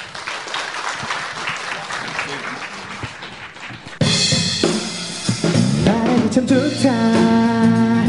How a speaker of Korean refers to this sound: 자, 여러분 뜨거운 박수로 청해 듣겠습니다.